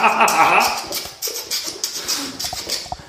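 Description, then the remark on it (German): A voice imitates a toilet plunger: a drawn-out, wet, gurgling vocal noise followed by a series of short, squelchy pops, fairly loud. “Kennst du das Geräusch, das ein, das ein Toilettenpöppel macht?”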